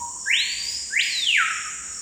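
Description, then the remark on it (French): A small, hard-to-see bird of the Amazon rainforest gives two quick, clear whistled notes that sweep upward in pitch, fairly loud, over a constant high-pitched hum of insects in the background. “Pourtant, ce petit oiseau difficile à voir ne vit qu'en Amazonie.”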